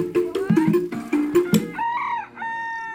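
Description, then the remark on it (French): An old rooster with a curled comb crows in front of a farmyard, its drawn-out call rising and falling, preceded by a quick burst of clucking and scratchy fowl noises. “Un après-midi, alors que mon attention était attirée par un coq immobile devant la basse-cour, grand-père est venu discrètement derrière moi pour me prévenir.”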